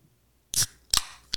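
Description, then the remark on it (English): A drink can cracks open: a sharp metallic snap with a short fizzy hiss, a second crisp pop, then a small click as the tab settles, with no voices. “this is a drink in a can”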